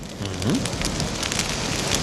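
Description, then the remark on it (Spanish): A campfire crackles steadily, a dense hiss dotted with sharp little pops and snaps, with no one talking over it. “Bueno, a partir de aquí, lo más importante de este fuego, mira, ¿escuchas el crepitar?”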